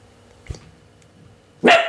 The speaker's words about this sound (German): Oh, der Hund hat wieder was gehört. Ich drück mal kurz Pause. Ja, so ist das, wenn der Hund direkt neben einem sitzt und dann ins Mikrofon bellt. Entschuldigung dafür.